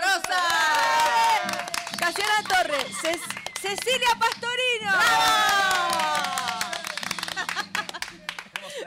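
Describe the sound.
An audience claps and cheers steadily throughout, with loud whoops and shouting voices rising over the dense applause while a voice announces names over the din.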